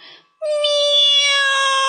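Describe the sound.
A single long, drawn-out cat meow, loud and strikingly steady in pitch, holding its high tone for well over a second after a brief, faint murmur at the start.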